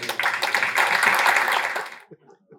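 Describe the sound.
An audience at Woods Edge Church breaks into a dense, steady round of applause for about two seconds, then the clapping cuts off abruptly and a voice briefly begins speaking.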